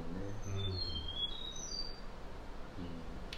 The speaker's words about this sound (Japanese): インドの鳥だもんねこの、うん、ああ、本当にこのインドの朝だなってやっぱりこの鳥の声で思うもんね